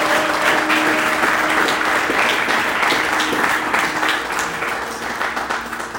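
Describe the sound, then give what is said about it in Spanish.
A church audience breaks into sustained, dense applause for Jesus Christ during a morning service, many hands clapping steadily and loudly for about six seconds before easing slightly toward the end, with faint voices mixed in. “Por eso la iglesia permanece, porque no estamos centrados en el humanismo, estamos centrados en el Hijo de Dios, al cual le pido que le dé un fuerte aplauso en esta mañana.”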